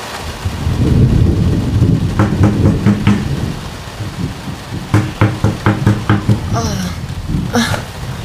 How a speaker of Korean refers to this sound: 이 밤엔 누구지? 그날 밤 누군가 거칠게 문을 두드렸다.